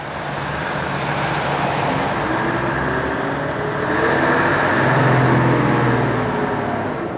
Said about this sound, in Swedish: Efter intervjun tog vi igen buss nummer ett till kyrkogården.